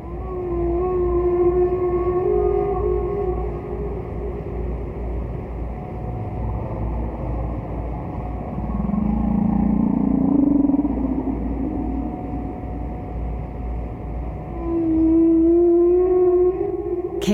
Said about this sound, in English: Payne is a researcher in the Bioacoustics Research Program of Cornell University's Laboratory of Ornithology, and she's part of the research team that produced this original recording, ….